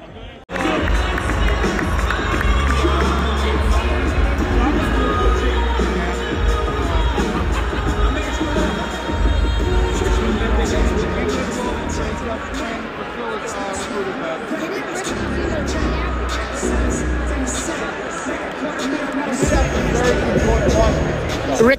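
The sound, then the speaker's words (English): A basketball crowd at Madison Square Garden (MSG) cheers and boos as Pitino walks in, a dense, continuous roar of mixed voices and babble, staying loud throughout and swelling again near the end. “Pitino just walked into a smattering of cheers and boos.”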